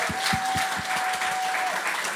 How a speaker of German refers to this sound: Applaus für dich.